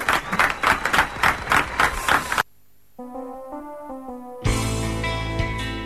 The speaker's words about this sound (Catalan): Sí, senyor. Un aplaudiment pel Filip Landini.